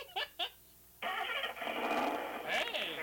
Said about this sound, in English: now, if I want to start my, my engine or my car, mm-hmm.